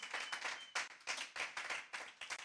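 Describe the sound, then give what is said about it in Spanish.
An audience at a church service claps their hands for the Lord in a dense, irregular burst of applause, many overlapping claps forming bright, crackling pulses that swell and dip throughout. “Come on, give the Lord a hand clap if you believe it this morning.”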